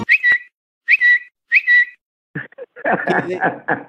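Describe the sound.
Three quick whistled chirps imitating a little bird, each a bright rising-then-steady tweet, fairly loud, followed by a short burst of garbled chattery vocal sounds.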